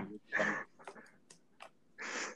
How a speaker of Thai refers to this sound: มึงมีเสียงหายใจเข้ามา